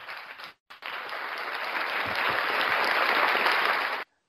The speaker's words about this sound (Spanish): Muy bien, ¿eh? la verdad que aplaudo, aplaudo.